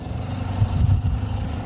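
The Wittower car ferry on Rügen, Germany, which carries up to 19 cars, approaches the landing. Its engine rumbles low and steady, the deep droning hum swelling slightly midway before settling back, with no voices present.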